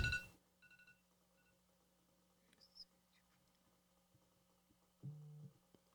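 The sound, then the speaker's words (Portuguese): Short electronic tones from a phone alarm someone forgot to deactivate chirp intermittently over a steady low hum: a brief burst at the start, a few faint high beeps, then a lower buzzing tone near the end. “É um, é, um, alarme meu aqui que eu esqueci de desativar o meu telefone.”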